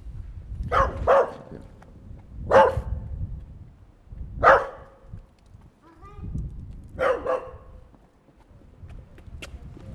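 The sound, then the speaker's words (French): A dog barks about five or six times in short, irregular bursts, loud, with pauses between them over a low rumbling background. “Oh, en tout cas, il y a un chien.”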